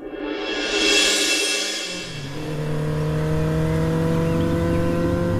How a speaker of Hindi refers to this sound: जीतू जरा देख तो हीरो होंडा ने क्या स्पीड पकड़ रखी है